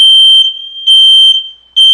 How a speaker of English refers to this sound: Um, oh, great! Woo! Great! What a perfect timing for the smoke detectors to go off. Isn't that awesome?